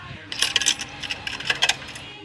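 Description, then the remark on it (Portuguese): Tokens drop and clatter in a quick, bright series of metallic clinks, pausing briefly before another burst of jingling, moderately loud with no talking. “Sonoplasta, por favor, barulho de ficha caindo.”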